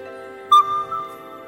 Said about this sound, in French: Eh bien non, c'est l'appel d'un crapaud accoucheur. Trois fois plus petit que son cousin crapaud commun, ce petit amphibien gris aux yeux dorés fait la taille d'un abricot. Le soir venu, il produit de doux sons proches d'une flûte.